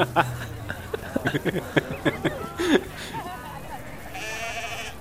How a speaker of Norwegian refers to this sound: Uh, folkens, hvorfor kommer alle sauene bort mot oss? Det er sikkert 20 sauer. Hvorfor kommer alle her?